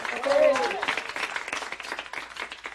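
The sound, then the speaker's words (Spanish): An audience bursts into applause asking the speaker to talk about the discovery and conquest of America, many hands clapping in a dense, steady patter that fades slightly over a few seconds, with a brief high vocal whoop rising above it near the start. “Vamos con un aplauso a pedirle que nos hable del descubrimiento y la conquista de América.”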